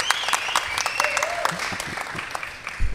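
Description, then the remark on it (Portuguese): A crowd claps steadily in dense, continuous applause welcoming guests, with faint voices and some whistle-like tones mixed in underneath. “Palmas para uhum. os nossos valeu. convidados.”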